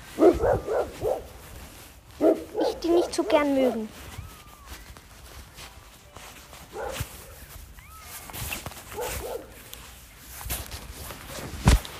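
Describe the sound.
Dogs bark outdoors at an old football pitch in a few short bursts while a man talks over them and footsteps shuffle along, the barking fading in and out.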